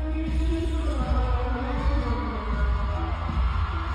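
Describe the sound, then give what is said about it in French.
Muffled live concert recorded from the venue's refreshment bar, with a steady boomy low end, smeared music and crowd noise blending into a continuous murky wash. “Ils étaient sur scène il y a quelques jours. Et qui c'est qui a pointé le bout de son nez”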